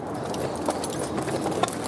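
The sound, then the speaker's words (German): Horse hooves clip-clop at a steady, uneven pace as horses are led over high, snow-covered mountain passes in the Himalayan foothills, the sharp knocks set against a constant rushing background noise. There is no talking. “Sie führen ihre Pferde also über hohe, schneebedeckte Pässe und suchen sich abends einen windgeschützten Platz zum Schlafen.”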